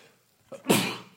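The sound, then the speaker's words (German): A single sharp sneeze: a short intake of breath followed by a loud, breathy burst that trails off quickly. “Uh, Gesundheit.”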